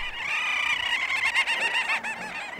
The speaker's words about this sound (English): These are little auks black and white birds that breed on Arctic islands, and there were zillions of them on Svalbard when I was there, swirling around in the sky and making this noise pretty much 24 7.